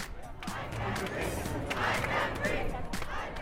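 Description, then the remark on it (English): A large outdoor Black Lives Matter protest crowd in Berlin chants and shouts together, a dense, steady roar of many voices holding at a loud, even level throughout, with no single speaker standing out. “After the killing of George Floyd in police custody in Minnesota, people have been taking to the streets globally”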